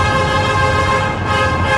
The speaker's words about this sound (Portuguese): E vocês escutam um dos ônibus buzinando. Buzinando, buzinando. Toda hora aqui.